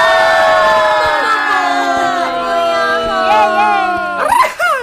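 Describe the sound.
Several voices shout and cheer together in a loud, sustained, high-pitched burst, rising into a final excited outburst near the end.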